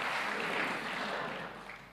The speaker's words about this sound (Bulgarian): О, ако вярваш в това, защо не му дадеш едно дарение на ръкопляскане, като че наистина вярваш?